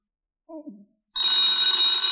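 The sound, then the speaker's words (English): A telephone bell starts ringing loudly and continuously after a brief murmured voice, its bright metallic tone sustained. “get the phone, Walt.”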